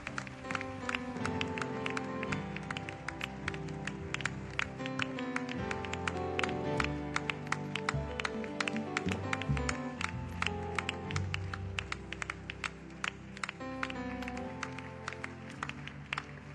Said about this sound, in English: Let's keep clapping, let's keep clapping, let's keep clapping, let's keep clapping.